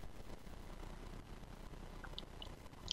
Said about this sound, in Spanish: Ahora, para, para, me tomo un poquito de agua.